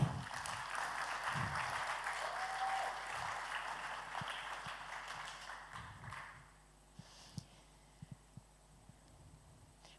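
An audience in a hall applauds a woman called up to the front, in a dense, steady burst of clapping for about six seconds, then it dies away, leaving a quieter stretch broken by a few scattered taps.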